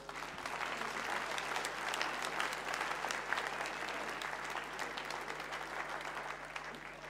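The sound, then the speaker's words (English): Sustained audience applause for a man, a dense, even wash of many hands clapping at steady loudness for several seconds, with no voices standing out. “Let's give him a great clap, everyone.”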